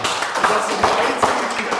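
A small group claps in a steady, dense patter of handclaps, even in loudness for a couple of seconds with no one speaking.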